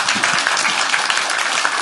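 An audience applauds steadily, many hands clapping in a dense, continuous crackle that stays fairly loud and even for the whole stretch, with no voices standing out.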